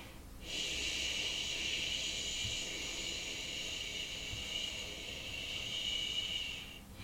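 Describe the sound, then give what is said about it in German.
A long, steady breath blown out through pursed lips, a hissing whoosh that imitates wind, sustained at even loudness for several seconds before trailing off, with no talking. “Ja, das hört sich an wie der Wind.”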